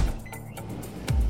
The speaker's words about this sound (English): But what about that sound? You're listening to a set of GE appliances, complete with all you need to keep food fresh, dishes clean, and everything else stress free